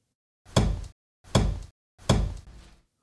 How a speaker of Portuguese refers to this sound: O pico é um enorme macete de madeira usado como um martelo para moer terra, desfazê-la em pó. O pio é uma pedra escavada ao centro, a pia onde a terra é desfeita em pó se vai acumulando.